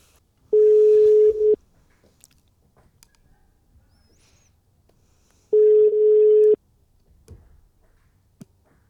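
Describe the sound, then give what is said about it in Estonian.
Two steady, mid-pitched telephone ringback tones, each about a second long and separated by several seconds of near silence, as a call to a young veterinarian rings out on the line. “ja järgmine kõne meie kõige nooremale loomaarstile, kontrollitud, selle aasta lõpetaja, kõige noorem öö, ehm, oma lennus”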